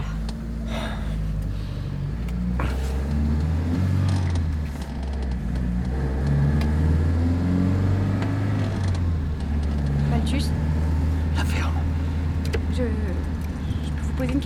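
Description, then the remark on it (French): A car engine turns over and runs with a deep, steady rumble, rising in pitch as it revs and accelerates, with faint jingling, creaks and muffled voices. “Regardez, regardez, je démarre.”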